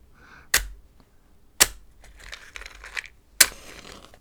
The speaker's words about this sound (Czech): To jsou evropské sirky. Ty musí něco vydržet.